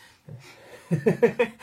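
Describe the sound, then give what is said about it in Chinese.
A girl cutting paper sniffs in a quick run of four short, breathy bursts after a softer stretch of nasal breathing, fairly quiet overall with no talking. “呃，昨天，哎，好，这吸鼻子的就是她啊。”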